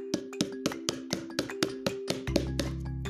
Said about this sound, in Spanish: Un día que hacía mucho, mucho frío y llovía, la abuela escuchó en su ventana unos golpeteos más o menos así.